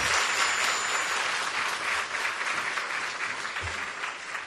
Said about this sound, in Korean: 진짜 사역을 하는 귀한 리더십들 축복의 박수 정렬 박수 하겠습니다.